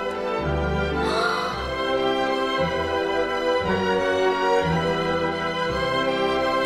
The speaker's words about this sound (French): Là, là, ce sont surtout les instruments à cordes qui jouent.